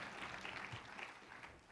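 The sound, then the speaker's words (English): A church audience applauding together in praise of the Lord, many hands clapping in a dense, continuous patter that holds steady at moderate volume throughout, with no speech over it. “Give the Lord a hand clap of praise if you will.”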